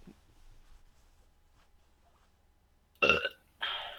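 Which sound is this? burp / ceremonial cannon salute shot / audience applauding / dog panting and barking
burp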